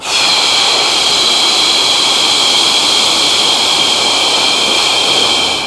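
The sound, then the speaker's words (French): A long, steady breathy exhalation during a breathing exercise, breathed out over two counts, loud, hissing continuously with an even, unbroken rush of air from start to finish and no talking. “On bloque un temps et expire deux temps.”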